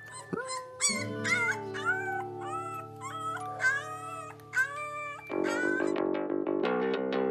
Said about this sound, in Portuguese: Ao seu lado, o lobo bebê, contente por ter companhia, uivava baixinho.